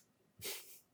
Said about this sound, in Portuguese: isso foi um arroto, gente.